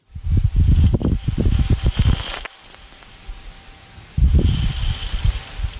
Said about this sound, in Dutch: Wat je hoort is de allereerste opname van een dust devil, een wervelwind op Mars.